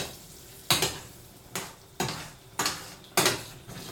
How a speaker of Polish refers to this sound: Przejadę sobie łyżką wzdłuż brzegów, zagarniając do środka, żeby nic mi tutaj nie przywierało. I dusimy dalej.